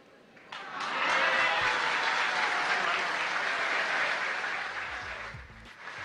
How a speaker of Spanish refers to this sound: Fuerte los aplausos para esta pequeña niña.